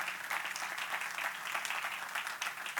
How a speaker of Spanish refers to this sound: Den un aplauso al Señor en esta hora.